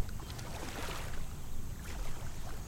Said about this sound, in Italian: L'acqua del lago ondeggia placida sotto la spinta del vento. È mattina presto a Castelletto di Brenzone, quando una volante della polizia accosta presso il porticciolo tra un mucchio di case colorate.